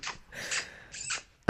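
A dog barks a few times in quick, breathy, muffled bursts, fairly quiet and a little distant, with short pauses between them and no one talking.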